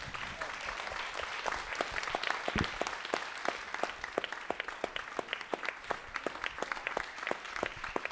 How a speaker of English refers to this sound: Can we applaud for these guys?